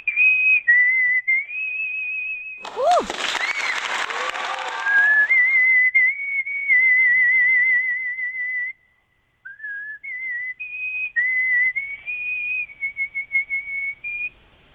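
A clear, steady whistled melody with sustained high notes and small pitch slides, briefly covered by a burst of applause and cheering near the start, then continuing alone after a short pause.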